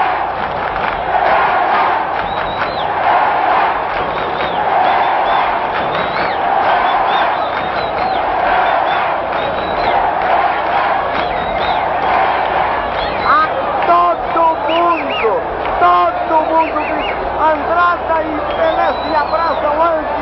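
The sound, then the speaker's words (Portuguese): A huge football stadium crowd roars and cheers without a break for twenty seconds as a penalty is given and Pelé is set to take it. The sound is loud and dense, with rhythmic chanting and shrill whistles rising out of the din toward the end. “A torcida toda, ouçam só a torcida toda.”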